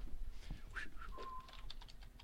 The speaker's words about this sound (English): Uh-huh. Typing, typing.